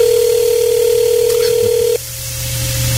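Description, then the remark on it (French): A steady electronic telephone ringing tone, as heard when placing a call, hums loudly for about two seconds, then cuts off and shifts to a quieter line tone. No one speaks. “Est-ce que vous entendez? Oui, OK, ça sonne.”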